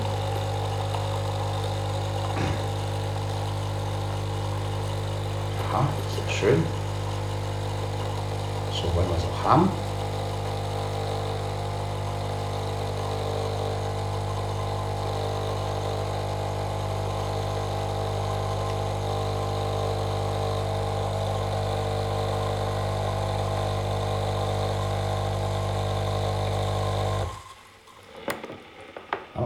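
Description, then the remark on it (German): A coffee pad machine brews into a cup with a steady, loud motorized pump hum and a few brief sputtering bursts, running for almost half a minute before it abruptly stops. “Maschine ausmachen, Pads wegkippen, Wasser ausleeren.”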